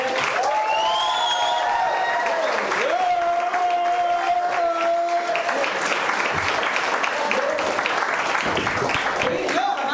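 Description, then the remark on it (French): A crowd applauds a comedian and host being introduced on stage, loudly and steadily for the full ten seconds, a dense wash of clapping, with a few drawn-out whoops and shouts rising above it early on. “Finalement, je suis juste quelqu'un de plus qui applaudit”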